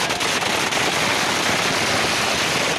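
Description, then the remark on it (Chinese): A dense, unbroken crackle of firecrackers set off by voters in the streets of India celebrating election results, a rapid string of sharp pops merging into a loud, hissing roar, with a few stronger bursts near the start and no voices. “二号选举结果出炉，选民还上街跳舞、放鞭炮，欢庆选举结果。”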